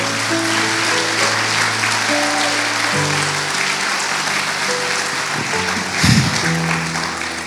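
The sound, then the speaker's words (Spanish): Steady crowd applause fills the whole stretch, loud and dense with many hands clapping, over a sustained musical backdrop of held keyboard chords, with a brief low thump near the end. “Vamos, yo va a aplaudir, hágalo con fe.”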